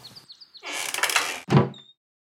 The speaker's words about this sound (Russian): Насильно подавив инстинкт, что взвыл об опасности для жизни, вступает во тьму – закрывает дверь. Теперь совсем темно.